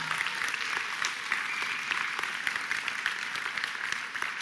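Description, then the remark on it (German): Steady audience applause for a preacher about to give his first sermon, a dense wash of many hands clapping at an even, sustained loudness for several seconds, with no voices standing out. “Gib dir mal einen fetten Applaus.”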